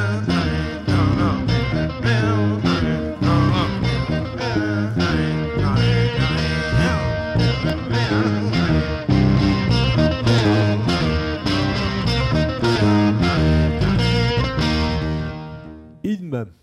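A heavily distorted electric guitar plays a slow, soaring anthem melody with sustained, bending notes and effects-laden tone, loud and continuous throughout before cutting off abruptly at the end.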